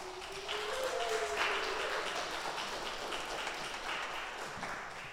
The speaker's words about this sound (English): Can we just get one more round of applause for all of our partners?